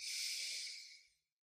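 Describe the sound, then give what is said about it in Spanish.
A single long, deep breath drawn in through the nose, a steady airy hiss that swells quickly and fades out after about a second, clear with no talking. “Una vez más, inhalas por la nariz.”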